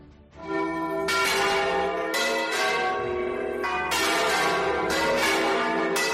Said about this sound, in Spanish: Son las campanas de las iglesias de Extremadura que ayer estuvieron tocando a las 12 de la mañana para reivindicar el mundo rural.